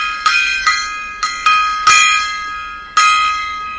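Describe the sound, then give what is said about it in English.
A gong is struck six times in an uneven rhythm, each bright metallic hit ringing out and overlapping the next, with no voices. “Um, it uh, sports, hockey, baseball, basketball, uh, NASCAR teams, coaches, players, uh, random bongo solo or random uh, gong solos.”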